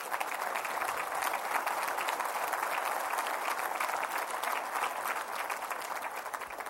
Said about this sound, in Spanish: ¿Cuántos dicen gloria a Dios? Dele un fuerte aplauso a Cristo.